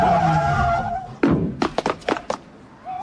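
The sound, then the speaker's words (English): A car skids to a halt with a sustained squeal of tires, followed by a heavy thunk and a quick series of sharp knocks and clatters. “Stop the car.”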